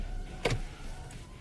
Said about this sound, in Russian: Как отличить э, маломальского знатока Porsche от дилетанта? Дилетант будет искать замок зажигания справа, где у всех нормальных обычных машин. Знаток сразу вставит ключ зажигания